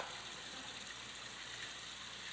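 Soft, steady rippling of water in a container, a faint continuous sloshing and trickle with no distinct splashes, heard alone and at low volume.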